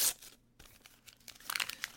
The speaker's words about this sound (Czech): A který prostě vezmete, hrc, vidíte, vidíte, vidíte, jo, dobrý, rozbalíte, pokusíte se vyndat všechny ty samolepky, protože jinak s tím pitlíčkem vyhodíte